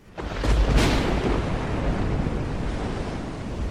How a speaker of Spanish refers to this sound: Atravesó todas sus tierras y llegó al mar. Ahí tomó un barco, pero en alta mar se desató una tormenta terrible.